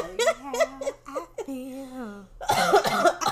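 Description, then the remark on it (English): A loud fit of coughing from someone choking on a drink: strained, voiced bursts and a drawn-out wheezy gasp, followed by a cluster of harsh, rapid coughs. “oh my god, I'm choking.”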